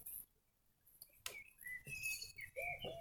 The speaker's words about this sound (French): Deux oiseaux amoureux sur un toit plus loin se chamaillent.